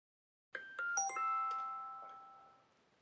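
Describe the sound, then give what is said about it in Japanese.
A bright, bell-like electronic chime from a smartphone receiving an email inside a car plays a quick run of four or five rising tones that ring out together and fade over about two seconds, clear, with no voices. “彼は再び車内に乗り込んでスマートフォンの画面を見つめた。しばらくして、それは受信音を発した。”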